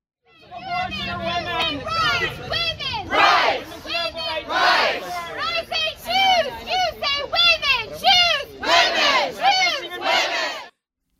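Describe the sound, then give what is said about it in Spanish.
A crowd of protesters outside the U.S. Supreme Court in Washington shouts in loud, rhythmic unison in defense of women's rights, protesting the overturning of Roe v. Wade. Their voices rise and fall in repeated chant-like bursts that fill the whole clip without pause. “Gritaban en defensa de los derechos de las mujeres.”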